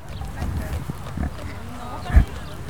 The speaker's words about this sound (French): Donc là, c'est le bruit des moutons qui sont en train de brouter l'herbe.